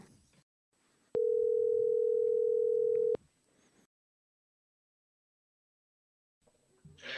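telephone call ringing tone

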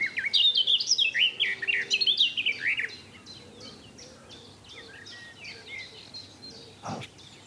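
songbird singing

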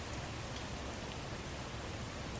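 rain falling at night

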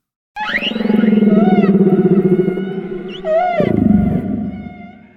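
humpback whale song

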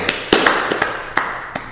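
hand clapping

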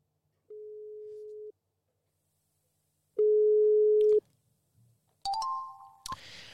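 outgoing call ringing tone

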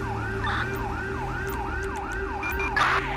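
emergency vehicle siren wailing

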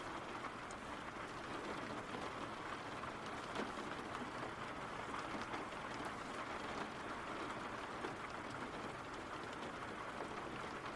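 rain falling

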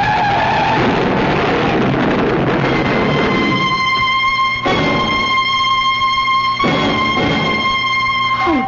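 car skidding

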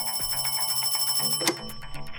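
telephone ringing

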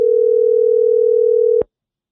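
telephone ringing tone

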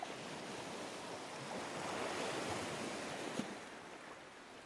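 ocean waves and surf

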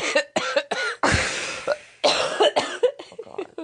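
nose blowing

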